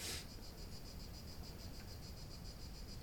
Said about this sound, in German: Das sind übrigens Zirkaden, was ihr da hört, wenn wir nichts sagen.